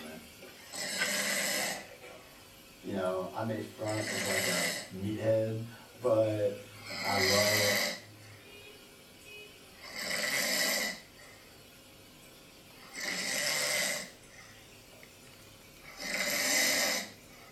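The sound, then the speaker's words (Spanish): A person snores loudly, six rasping breaths at a steady rhythm about three seconds apart, with a low voiced, throaty rumble in the first few snores. “El quinto ejemplo es que si nuestro asistente de voz detecta ronquidos, entonces se va a apagar la luz y el contenido de nuestro Fire TV conectado a nuestra televisión.”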